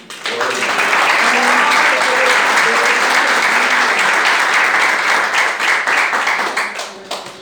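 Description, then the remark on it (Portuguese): A crowd applauds to the Lord for several seconds, a dense, loud wash of many hands clapping with faint voices mixed in, tapering off slightly at the end. “A mocidade agradece a oportunidade e as palmas ao Senhor.”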